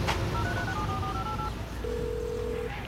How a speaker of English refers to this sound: Phone. Call Bobby.